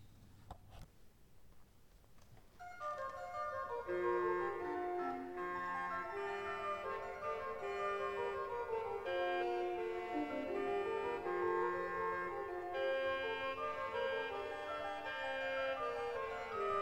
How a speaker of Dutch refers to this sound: Dan horen we het regaal van het, van het borstwerk. Dat is een kortbekerig tong, een beetje snaterend tongwerkje met de fluiten 8 en 4 er tegenover.